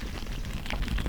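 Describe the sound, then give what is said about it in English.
About a dozen black ground beetles of the exotic European species Nebria brevicollis, each fingernail-sized and taken from a fistful of Oregon soil, scamper inside a plastic bag held by an entomologist, making a dense, continuous, steady patter of tiny scratches and crinkles, with no voices. “This is the sound of a dozen black beetles, each the size of my fingernail, scampering about in a plastic baggie.”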